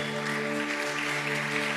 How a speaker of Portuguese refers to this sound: Uma salva de palmas para a mídia. Uma salva de palmas para todos que estão servindo nessa manhã.